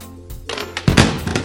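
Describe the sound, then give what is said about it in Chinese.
The leg of the smallest wooden chair snaps as a little girl tilts back and rocks on it: a short series of sharp cracks and clattering knocks, then a heavy thud as it gives way, all within about a second and a half, with no voices. “最小的椅子也被小女孩玩到椅脚断掉了。”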